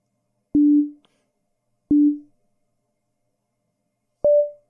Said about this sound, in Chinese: 那么也很容易用用合成器去复现出来。一个正弦波